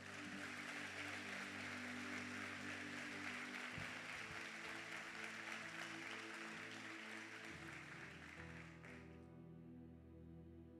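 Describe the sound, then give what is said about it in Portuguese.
An audience claps for Jesus in a loud, sustained burst of applause for about nine seconds before it fades out, with a steady low keyboard or organ tone sounding underneath. “Pode dar um salve de palmas para Jesus, amado.”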